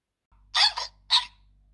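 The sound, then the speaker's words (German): A voice makes a couple of quick, breathy hiccup sounds, a double hic followed by a single one after a brief pause, over a faint low hum. “Gegen Schluckauf hilft Erschrecken.”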